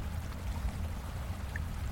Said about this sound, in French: Aux abords de la maison, voire même sous la maison, coule un ruisseau.